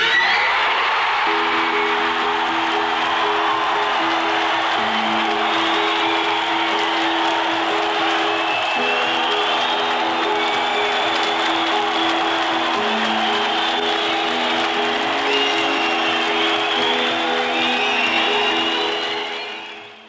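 A huge crowd roars in sustained cheering and screaming, dense and loud throughout, with applause mixed in and a steady low tone running underneath before it fades out at the end.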